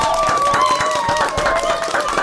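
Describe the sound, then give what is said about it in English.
A small group claps steadily and quickly while voices cheer and whoop over it, loud throughout the short burst. “claps up, claps up.”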